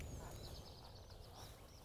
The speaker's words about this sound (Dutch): Even kijken, ik hoor een raaf. Ja, een raaf. Zo, dat heb die Hoor dat krok, krok, krok, krok, krok, krok.